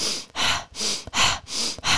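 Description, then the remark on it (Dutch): Deep, forceful breaths drawn in and pushed out in quick succession, about five rushing breaths in a steady, fast rhythm with no talking, as deep breathing done before taking a cold shower. “Op dit tempo, in deze diepe ademhaling, zo'n 20, eh, 30 keer.”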